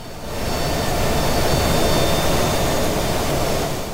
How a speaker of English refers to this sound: With a slight creak and a slow slip of gears, a gaping hole opens up in the back of a plane flying over Dauphin Lake.